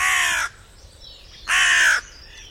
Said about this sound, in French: Et écoute bien. Le cri du grand corbeau est bref, alors que celui de la corneille est plus grave, fort et long.